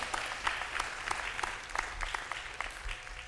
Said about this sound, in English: a bunch of screaming and applauding and all that